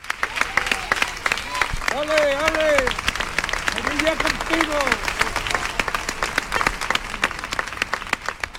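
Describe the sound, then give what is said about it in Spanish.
Sustained applause from hundreds of people in Seville accompanies an artist's funeral procession, in which a horse-drawn hearse carries the coffin. The applause is dense and steady, with voices calling out and chattering among the clapping. “El féretro del artista fue trasladado en un coche fúnebre de caballos como ella había pedido y que fue acompañado en su recorrido por los aplausos de cientos de sevillanos.”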